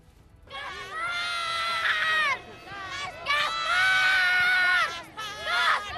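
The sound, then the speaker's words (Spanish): A large crowd in the rain cheers and shrieks at a Three Kings (Reyes Magos) parade on 5 January, the eve of Día de Reyes, in loud, high-pitched waves, many excited voices, including children's, overlapping in sustained bursts with brief dips between them. “A pesar de la lluvia, las calles se han llenado para recibir a los Reyes Magos.”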